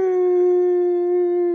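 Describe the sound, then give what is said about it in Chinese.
A rooster crows at dawn facing east toward the rising sun, one long, sustained call, a loud, bright tone held at a steady pitch for well over a second, with no talking around it. “早上啊，公鸡亮亮第一个起床，他面朝东边，向着和他一样早起的太阳高声啼叫”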